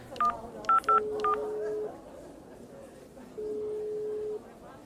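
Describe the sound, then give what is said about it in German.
Four short mobile phone keypad dialing tones beep in quick succession, followed by two long, steady ringing tones separated by a pause, all clear over faint background noise. “Sekunde, gib mir gerade mal mein Handy.”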